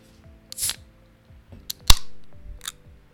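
An ordinary beer being opened for ASMR: a few small metallic clicks and rustles, then one sharp crack followed by a short fizzing hiss that fades, with no talking.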